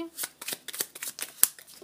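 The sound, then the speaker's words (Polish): Oracle cards being shuffled and a card drawn, a rapid series of crisp papery flicks and riffles with one sharper snap near the end, no talking. “I teraz wylosuję jeszcze kartę wskazówkę z y, anielskich kluczy.”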